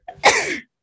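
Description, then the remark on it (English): A single loud sneeze: a quick sharp intake of breath, then an explosive, hissing burst that trails off within about half a second. No one speaks. “bless you. Thank you.”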